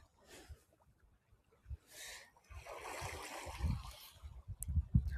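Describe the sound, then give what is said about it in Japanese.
Outdoor beach ambience in Okinawa with soft, irregular splashes of shallow, lukewarm seawater as someone splashes their feet in it, and a steady wash of surf, low thuds and sloshing coming in bursts toward the end. “ビーチから少しライブ”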